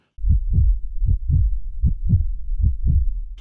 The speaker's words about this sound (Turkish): Yani benim aklıma gelen en basit ve en e, çok kullanılan örnek kalp sesi. Yani gergin bir an olduğunda kalp atış sesi yani gerçekten olabilecek en klişe ses belki de filmlerde kullanılan.